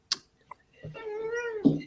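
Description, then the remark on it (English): A cat comes to say hello and lets out one drawn-out meow, moderately loud, rising and then falling in pitch, preceded by a couple of brief clicks. “Just got the cat come to say hello.”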